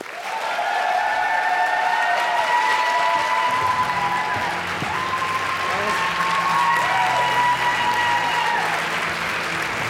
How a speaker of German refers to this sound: Trifft den Künstler und heute treffen wir einen ganz besonderen Künstler. Begrüßt mit einem großen Applaus